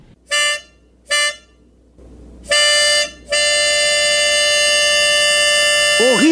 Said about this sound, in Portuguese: Aqui está um apito. Olha, é uma especialidade, ouça só.